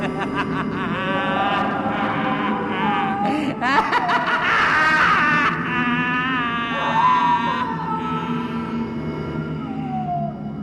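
A man screams in strained, rising cries layered over sinister, echoing laughter that seems to come out of the air, the two voices tangled together loudly and continuously without a break.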